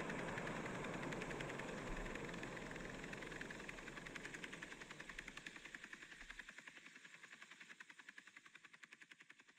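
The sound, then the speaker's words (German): Loud helicopter rotor noise with a steady, rapid chopping pulse over a broad whooshing roar; the deep rumble drops away midway, leaving the rhythmic blade thumps clearer and slightly fainter. No voices. “Immer wieder ertönen Rotorengeräusche.”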